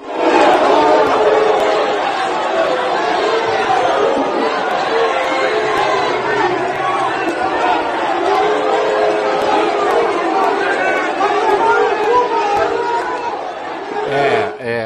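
A huge stadium crowd of Santos fans boos loudly and without letup at a Brazilian Championship match against Curitiba, reacting to a man appearing in a stadium box about 20 minutes before kickoff. It is a dense, sustained roar of many voices that holds steady for the whole stretch.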